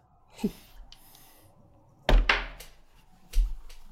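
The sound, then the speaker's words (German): A die drops and clatters onto a hard surface: one soft knock, then a louder cluster of bouncing clacks, and a final hard thunk, with no talking. “Mein Würfel ist runtergefallen.”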